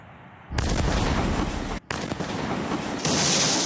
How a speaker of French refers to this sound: Plusieurs explosions. Une météorite vient de se désintégrer au-dessus de la ville.